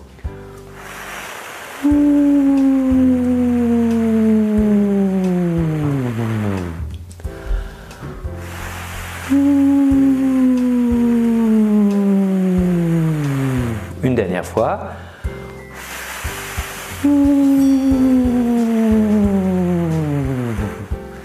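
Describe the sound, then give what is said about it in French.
A voice makes three long descending siren-like glides as a vocal exercise, each sliding smoothly from high to low and starting with a breathy, wind-like hiss, clear with short pauses between. “Très bien, pour terminer, nous allons faire maintenant des petites sirènes descendantes, toujours en démarrant par le bruit du vent.”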